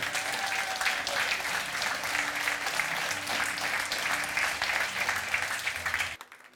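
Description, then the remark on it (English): A large crowd claps steadily for about six seconds for the people who prayed a prayer to make Jesus their Lord and Savior, a dense, sustained wash of applause with some cheering mixed in, then it cuts off abruptly. “Now give it up for the people who prayed that prayer.”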